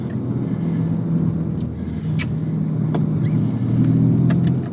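car driving

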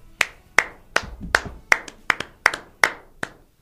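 hand clapping

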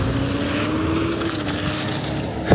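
car driving in traffic

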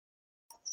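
cricket chirping in background

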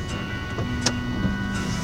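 car maneuvering

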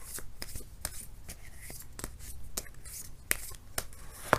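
shuffling tarot cards

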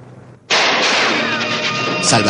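rifle gunshots

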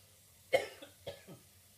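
coughing fit

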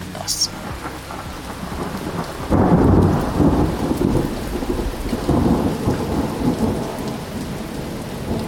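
thunder and rain

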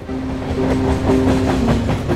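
tram running on rails

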